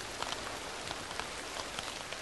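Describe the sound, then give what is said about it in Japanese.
Steady, dense rain patters continuously on a windbreaker in a forest, a constant hiss of many small droplet taps with no voices present. “雨は勢いを止めなかった私のウィンドブレーカーに音を立てて跳ねる”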